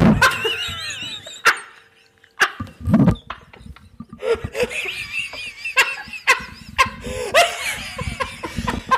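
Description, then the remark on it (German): A microphone topples over with a few loud thuds and rattling knocks, followed by bursts of laughter and excited voices. “Für alle Hörer da draußen, das Mikrofon ist gerade umgefallen oh und es konnte keiner was dafür, als wenn es ein Zeichen von oben wäre, oh, äh, lasst es, oder?”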